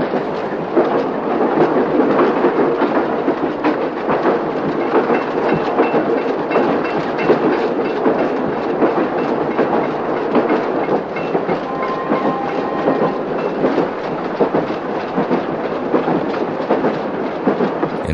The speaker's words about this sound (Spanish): El tren pasa sobre un puente cruzando un río.